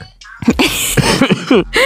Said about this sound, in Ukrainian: Кашлять уже.